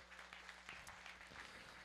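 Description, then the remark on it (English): An audience gives Jesus a hand clap, applauding with steady, dense hand clapping from many people, a continuous patter of claps at a fairly soft level. “Let's give Jesus a hand clap.”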